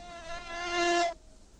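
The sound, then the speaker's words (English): A fly that goes on a man's face buzzes steadily with a thin, droning whine that swells slightly louder before cutting off abruptly after about a second, leaving faint background hiss. “Yeah, yeah, the fly that goes on the guy's the fly, face.”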